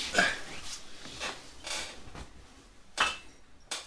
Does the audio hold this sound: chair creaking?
yes